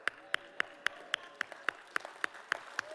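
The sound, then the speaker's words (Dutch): A steady series of about ten sharp hand claps at an even, brisk rhythm, each one crisp and bright, with faint background sound between them. “Mensen, nu ga ik eerst klappen.”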